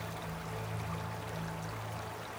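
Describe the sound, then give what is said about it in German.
A brook flows and bubbles steadily, a continuous watery rush with no breaks, heard alone at a moderate, even level without any voices. “Wenn man auf die sprudelnde Wasseroberfläche schaut, kann man jedes Steinli und Steckli im Fluss ganz klar erkennen, wie durch ein Vergrößerungsglas.”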